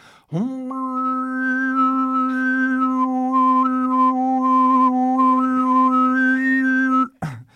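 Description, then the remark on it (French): Mongolian overtone throat singing: one steady, buzzing low drone held for about seven seconds while a thin, whistling overtone melody glides up and down above it, loud and unbroken, no talking. “Ça, c'est des chats harmoniques de la Mongolie, Donc, euh, ou de, tout va.”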